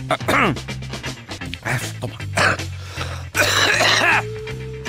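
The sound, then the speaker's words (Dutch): A person coughs and clears their throat several times in quick, rough bursts during a Radio Bergijk broadcast, with a low steady hum underneath. “Uh, sorry voor het kuchen.”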